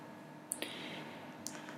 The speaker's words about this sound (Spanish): Hacemos clic en el enlace y nos lleva a una página web